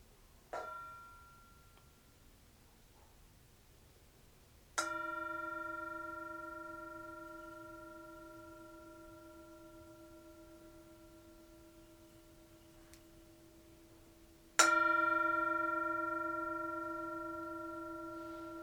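A bell rings out alone: a faint tap, then two clear strikes about ten seconds apart, each leaving a long, shimmering tone that slowly fades.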